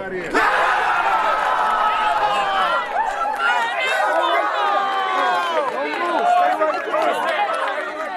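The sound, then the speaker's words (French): A crowd of fans at a basketball gathering in homage to Kobe and his daughter Gigi cheers and screams wildly after a girl of about 13 makes her second shot, a dense, loud roar of many excited high-pitched voices that holds steady for the whole stretch. “Elle en tente deuxième et elle le réussit aussi. Et là, c'est le délire.”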